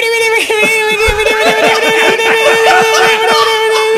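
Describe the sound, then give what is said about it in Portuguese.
A voice imitates a spinning roulette wheel to pick a category in a game, with a sustained hum and a rapid, steady run of ticking clicks lasting several seconds, fairly loud, with a hint of giggling. “a melhor roleta que eu já ouvi.”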